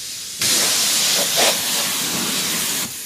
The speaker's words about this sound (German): Wir waschen mit warmem, sonnengewärmtem Wasser. Man fühlt es richtig. Der Schlauch ist sehr, sehr schön warm.